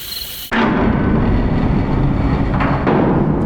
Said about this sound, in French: Maintenant, tu défonces la porte. On ne peut pas juste l'ouvrir normalement Ou discrètement, même, ce serait mieux.